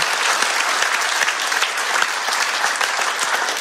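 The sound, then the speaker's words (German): An audience at a church service bursts into sustained applause for a person's decision to say yes to God and Jesus, a dense, steady wash of many hands clapping at an even level throughout, with no one speaking over it. “Und ich würde sagen, wir, wir, wir geben mal einen großen Applaus für diese Entscheidung.”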